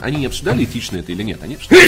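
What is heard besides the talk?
sneeze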